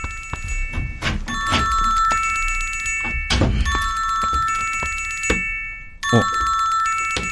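A mobile phone rings steadily with a bright, repeating bell-like ringtone, fairly loud, while a few dull knocks and thuds break in now and then. No one speaks.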